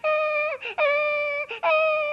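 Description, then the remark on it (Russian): A loud, high-pitched squealing wail, drawn out in three long, steady cries separated by short catches of breath, each one dipping slightly in pitch as it breaks off. “Перестань визжать, говорю тебе.”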